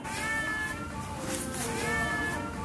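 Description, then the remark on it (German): Margarete, a female Persian cat that is very likely blind, meows twice while standing by the door, two drawn-out, wavering cries separated by a short pause, over a steady background hiss. “Und an der Perserdame Margarete, die miaut.”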